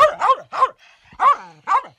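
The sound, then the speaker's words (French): A small poodle barks sharply about five times in quick, uneven bursts, with a faint whine in a short pause between them, fairly loud, no talking. “Les chiens ont été un boulet pour moi, puisque même le petit caniche se mettait à, vouloir me mordre, parce que le sac bleu en général derrière sur ma, charrette les terrifiait.”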